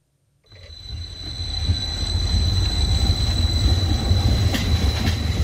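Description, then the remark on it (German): A 45-metre Stadler Rail light rail tram of the new Limmattal line, the first Monday-morning commuter service, departs Zürich Altstetten at 5:38, rolling along its tracks after a brief silence, a steady low rumble building in loudness, with a faint high electrical whine above and occasional clicks of the wheels. “Punkt 5.38 fährt zürich Altstädte die erste Limmatalbahn im Montagmorgen-Pendlerverkehr los.”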